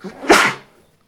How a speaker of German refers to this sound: Gesundheit.